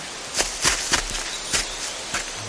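Footsteps of people on a team out to capture a female bear at a waterfall on Seoraksan, about five crunchy steps at an uneven pace, moderately loud over a faint steady outdoor hiss, with no talking.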